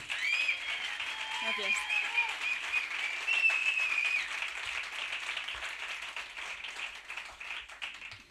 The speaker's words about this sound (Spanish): por favor, fuerte aplauso para ella.